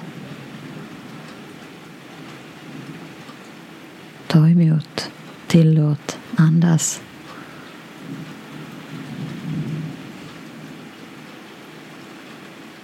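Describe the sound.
Steady pattering rain hisses throughout, with a low rolling rumble of thunder underneath; a soft voice speaks a few short phrases partway through.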